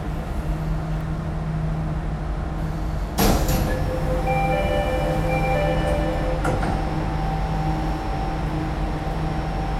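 Steady low rumble of a Jakarta MRT subway train in motion, heading toward Lebak Bulus station, with a sharp clunk around three seconds and thin whining tones drifting above the continuous hum, no one speaking.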